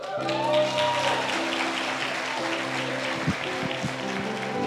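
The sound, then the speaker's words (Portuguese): An audience in a church applauds in a dense, steady wash of clapping that lasts the whole stretch, with sustained low musical tones humming underneath and a few sharper claps near the end. “Vamos aplaudir?”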